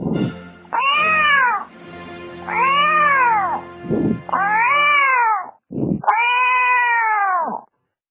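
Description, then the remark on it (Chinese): A person imitates a cat, giving four drawn-out, rising-then-falling meows in a row, loud and harmonic, each preceded by a short breathy onset, with the last meow the longest. “我学的最像的还是猫叫。”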